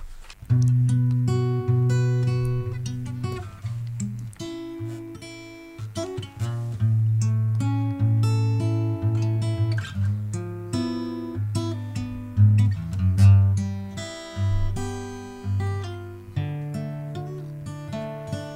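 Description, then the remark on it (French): A guitar plays arpeggiated chords alone, each note plucked in a steady flowing pattern and left to ring, moving through a chord progression at moderate volume for nearly twenty seconds. “a bien voulu jouer les arpèges pour nous.”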